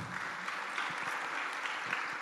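An audience at an event applauding the communication team steadily, a dense wash of many hands clapping at an even level throughout with no voices standing out.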